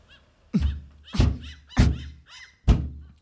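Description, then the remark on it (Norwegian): Four solid knocks on a seashell to get it open, made while sitting on a bathing jetty, spaced irregularly with short pauses, each a dull thunk with a brief rattle, against a faint background of birdlike chirps. “Der satt Bollos og dunket på kjell.”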